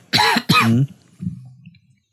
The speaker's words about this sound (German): Ich huste schon wieder ein bisschen.